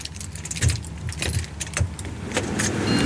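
Keys jangle and clink as doors are unlocked into a Stadtwerk Winterthur drinking-water pumping station between Sennhof and Winterthur-Dös: irregular bursts of bright metallic rattling, with a few sharper clacks like a lock turning, over a low steady rumble. No one speaks.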